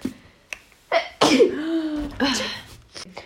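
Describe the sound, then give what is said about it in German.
A single sharp sneeze bursts out, preceded by a quick inhale and followed by a breathy voiced tail and brief vocal sounds. “Ich muss niesen, Achtung.”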